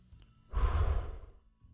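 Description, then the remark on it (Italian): A single deliberate, voluntary, audible breath drawn in, a broad airy rush lasting under a second with no talking around it. “In questo caso ho respirato in maniera volontaria.”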